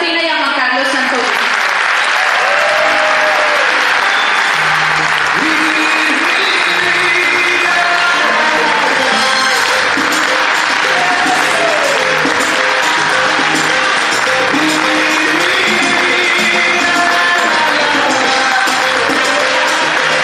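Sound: audience applause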